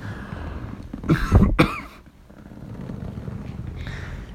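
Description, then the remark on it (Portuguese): A short burst of harsh coughing after choking on saliva, two or three quick hacks around the middle, over a low steady background hum with no talking. “Espera que eu vou tossir.”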